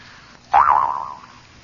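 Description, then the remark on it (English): A single twang of a jew's harp, its wobbling, boing-like pitch bending up and down before fading out over about a second, heard on its own with no talking. “I bought this $17 Jew's harp and all I get is a dull plonk out of it.”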